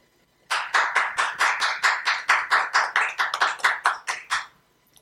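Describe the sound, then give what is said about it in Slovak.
An audience at a panel discussion applauds a guest in steady unison, about sixteen crisp, even claps in a rhythmic beat lasting around four seconds, loud and with no talking over it, then stopping abruptly. “Veľký potlesk.”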